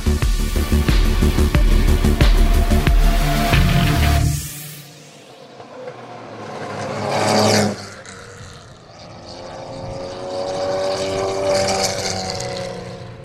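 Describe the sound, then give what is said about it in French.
A loud Mercedes-Benz 300 SL racing car engine, the car driven by Karl Kling that won the 1952 Carrera Panamericana, roars for a few seconds, cuts out abruptly, then returns as a rising howl and a steady, revving drone with strong harmonic tones. No one speaks. “Le son que vous venez d'entendre est celui de la Mercedes-Benz 300 SL, pilotée par l'Allemand Karl Kling, qui a remporté les honneurs de l'édition 1952 de la Carrera Panamericana”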